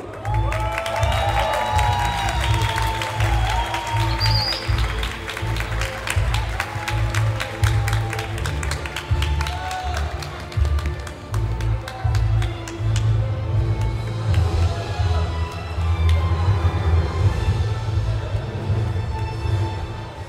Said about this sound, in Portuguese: Palmas, palmas para esse homem, gente.